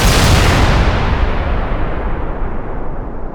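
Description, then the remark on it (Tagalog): A loud, dense barrage of firecrackers bursting in rapid succession, forming a continuous crackling roar that stays intense throughout, its sharp high edge fading slightly toward the end. “Mga paputok, pinag ang ipagbawal na ng tuluyan sa Pilipinas.”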